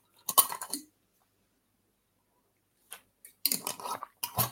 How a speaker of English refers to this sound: I'm just going to have a quick drink of water.